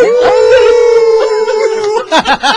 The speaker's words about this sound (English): There are wolves after me.